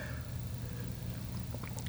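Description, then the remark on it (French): Quiet sips and swallows of water, with soft wet mouth clicks gathering toward the end over a low, steady background hum; no one speaks. “prendre une gorgée d'eau, hein, je parle pas mal.”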